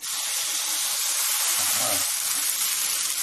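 Steady, loud sizzling of marzipan waffle batter on a hot waffle iron in Lübeck, a dense hiss that holds constant throughout with a faint low murmur briefly underneath.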